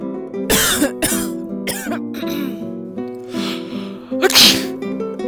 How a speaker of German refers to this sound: äh, niest.